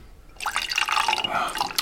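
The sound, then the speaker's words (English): A drink with no ice is poured into a specially designed cup with a large handle, a steady trickling, splashing stream that starts after a brief quiet moment and runs continuously until the end. “Just pour me a drink. Put the straw in it.”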